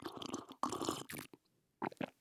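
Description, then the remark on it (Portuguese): Wet slurping as someone takes a few sips of hot coffee, in two noisy bursts separated by a brief quiet pause, with no talking. “Vou dar um golinho no café, tá? Só pra não esfriar, e não perder.”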